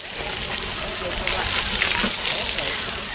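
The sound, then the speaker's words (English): Water splashing and sloshing continuously at steady loudness at city pools and splash pads in Toronto, Canada, during record-breaking heat of over 30 degrees on the Canada Day long weekend, with indistinct voices mixed into the background. “and finding relief in city pools and splash pads.”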